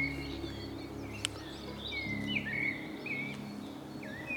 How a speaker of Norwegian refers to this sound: Men hver gang jeg hører den fuglen, så er det dit det kommer.